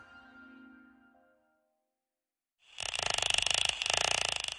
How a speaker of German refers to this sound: So klingt es, wenn ein Schweinswal auf der Jagd ist oder einfach mit Artgenossen klönt.